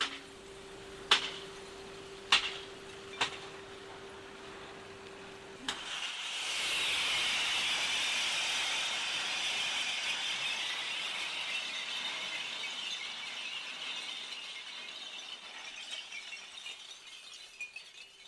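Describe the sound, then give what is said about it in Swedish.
A few sharp clinks ring out, then a sustained, loud rush of crashing and sliding glass pours out for over ten seconds, bright and hissing, gradually tapering as a long-haul truck in Sweden opens its rear hatch and dumps its load onto a pile of coloured glass. “Framför oss backar en av dem mot en av högarna, öppnar luckan i akten och tömmer lasten i högen med färgat glas.”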